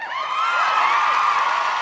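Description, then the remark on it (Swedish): A crowd cheers steadily, with whoops and high shouts riding over a dense wash of noise that holds at an even, fairly loud level throughout. “En liten applåd här utanför mikrofon här.”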